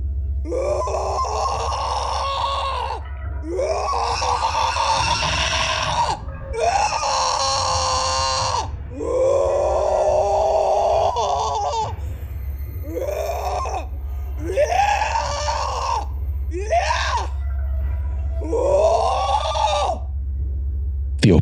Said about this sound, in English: let out a guttural howl of anguish.